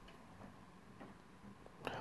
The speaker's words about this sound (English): What are you preparing? The clock is ticking.